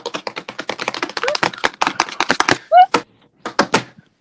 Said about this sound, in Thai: ตอนเนี้ยคอมก็คือพังแล้ว เพราะว่ากดเคาะแรงมาก